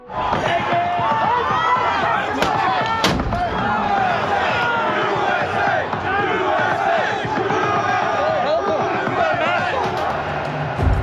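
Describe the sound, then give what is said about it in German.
A dense mob storming the United States Capitol roars and shouts continuously, many voices yelling at once, with occasional sharp bangs and thuds cutting through the loud, chaotic din. “Im Kapitol der Vereinigten Staaten von Amerika tobt der Mob.”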